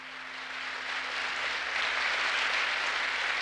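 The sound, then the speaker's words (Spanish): Sustained applause from an audience after a guitar-accompanied tango, a dense wash of many hands clapping at steady volume throughout, with no voices standing out. “Los aplausos seguramente deben ser para el señor”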